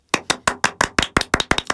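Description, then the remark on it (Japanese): A quick, steady run of about eleven sharp hand claps, crisp and evenly spaced at roughly six per second, with no talking. “パチパチパチパチ。”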